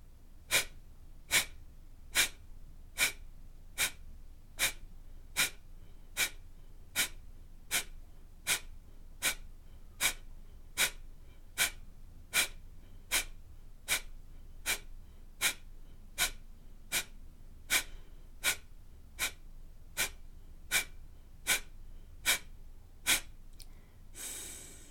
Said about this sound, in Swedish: Och när du känner dig redo, andas in helt, ut halva och 30 kapalabat.